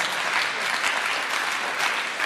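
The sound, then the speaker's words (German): An audience applauds steadily, a dense wash of many hands clapping at an even, sustained loudness throughout, with no voices standing out. “Ja, gebt ruhig Applaus.”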